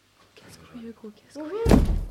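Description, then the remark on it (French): Someone speaks briefly, then an automatic door is forced open with a loud, heavy thud and a rattling burst of noise that fills the last half second. “avancez, la porte va s'ouvrir automatiquement.”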